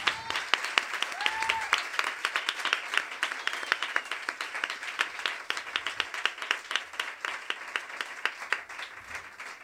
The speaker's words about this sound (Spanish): Muchas gracias. Un aplauso, por favor, compañeros.